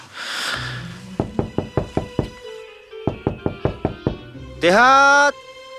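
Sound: knocking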